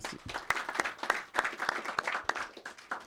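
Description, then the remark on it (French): An audience applauds steadily for a few seconds for a guest who acted in a stage play, a dense patter of many hands clapping with sharp individual claps standing out, fairly loud throughout and with no one speaking. “Franchement, ça s'applaudit, mesdames et messieurs”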